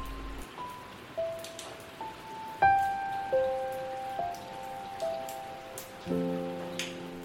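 Steady rain hisses throughout, while a slow series of soft, sustained melodic notes rises and falls over it, with a few louder chords. No one speaks.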